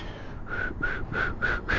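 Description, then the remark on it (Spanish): Five quick, breathy attempts at whistling with the mouth and lips, by someone who says they cannot whistle, in a steady rhythm, each a short puff of air carrying a faint, wavering tone, fairly soft, with no talking. “Pero eso, hacer, hacer ese ruido con los labios, ¿no? Con la boca y los labios.”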